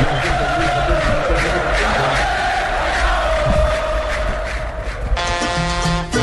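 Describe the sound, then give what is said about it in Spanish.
A large crowd roars with continuous shouting and cheering, dense and loud throughout, with a sustained horn-like tone cutting in over the noise near the end. “para todos los que quieren soñar que algún día les griten aquí.”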